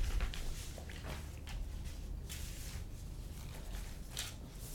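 Soft, irregular rustling of paper pages being shuffled and turned to find the right page of a study, a series of brief crisp swishes over a low background hum, with no one speaking.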